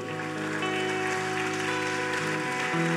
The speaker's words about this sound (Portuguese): Se você crê, diga amém e aplauda bem forte ao Senhor.